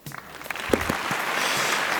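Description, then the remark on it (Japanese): An applause sound effect in a song starts with a few scattered claps and quickly swells into a dense, steady wash of crowd clapping that holds through to the end, with no one speaking. “拍手ですねこう拍手の効果もね”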